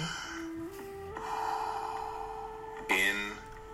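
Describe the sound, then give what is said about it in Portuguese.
Loud, airy breaths rush in and out over a steady, droning musical tone during a guided breathing relaxation exercise, with a sharper gasp-like intake near the end. No one speaks. “Inspire. Expire. Inspire. Expire. Apenas siga o fluxo da respiração.”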